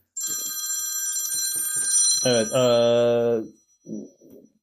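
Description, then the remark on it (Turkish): A phone rings with a bright, sustained electronic chime that swells louder partway through, then cuts off abruptly, followed by a brief spoken word or two. “bir küçük telefon kazasına uğradık.”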